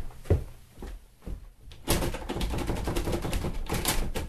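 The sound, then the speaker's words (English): A jammed door is forced, starting with a few separate heavy thuds, then breaking into a loud, continuous rattling and banging as it is yanked repeatedly, with no voices. “The bloody door's jammed!”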